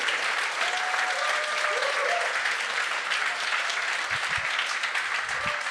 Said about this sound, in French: C'est Paul J'aimerais ça qu'on donne une bonne main d'applaudissement à Paul